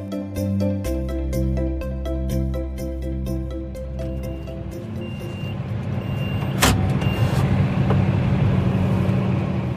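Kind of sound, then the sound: vehicle, tractor engine running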